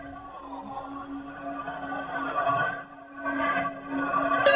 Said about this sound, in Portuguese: Isso aí é um ralo de pia, né? Lembra a água? É a água descendo no ralo da pia? Hum. É esse o efeito que eles quiseram dar pro começo da música. A água descendo. Parece uma coisa sugando, assim.